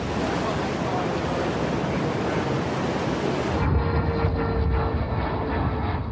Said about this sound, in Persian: این هواپیمای نیروی دریایی ایران که احتمالا برای شناسایی آمده بود بیش از حد به ناو نزدیک شد این هشداری به این هواپیما که بعد از مدتی کوتاه مسیر خود را تغییر داد